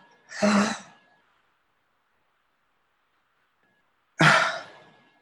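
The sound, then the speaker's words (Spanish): Two deep, breathy inhalations through the mouth during a guided breathing exercise, fairly loud, each lasting under a second and separated by a few seconds of near silence. “Por la boca inhalamos.”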